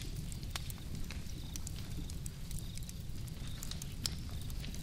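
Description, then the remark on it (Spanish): A bonfire crackles steadily, with irregular sharp pops and snaps over a low, continuous roar of burning. No one speaks. “mientras alegre cuidaba la hoguera y escuchaba atenta en espera ya que sus compañeros, pastores, pastoras, bajaran del monte al tibio rescoldo para calentar sus cansados cuerpos junto a la fogata de la alegre tienda pastoril.”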